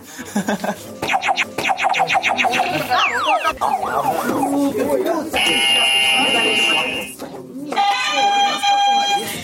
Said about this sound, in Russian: Если вы знаете ответ, Нажимаем на кнопку. Да. И отвечать. У всех звук разный. Можете попробовать. Попробуйте ваш звук Особый интерес вызвали звучащие кнопки.